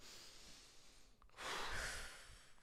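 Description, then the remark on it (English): A single deep breath: a soft inhale followed by a longer, louder, airy exhale like a sigh, with no talking. “And so, taking a deep breath, quite literally,”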